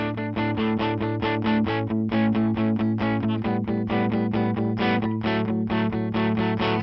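Opening of a pop song: loud, driving instrumental with rapid pulsing chords over a steady sustained bass, slightly gritty in tone, with no singing or talking yet.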